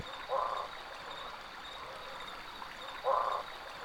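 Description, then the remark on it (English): Two short, hoarse, resonant calls of barking frogs (Craugastor augusti), spaced about three seconds apart, rise over a steady wash of flowing stream water by a river, with no voices present. “They are the hoarse and resonant calls of barking frogs, Craugastor augusti.”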